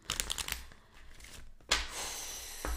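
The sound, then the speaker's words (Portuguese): A Marias Padilhas oracle card deck being shuffled to open a reading, with quick riffling bursts at the start, a pause, then a longer papery shuffle and a final soft tap. No one speaks. “Vou estar tá abrindo a leitura de vocês com o baralho das Marias Padilhas.”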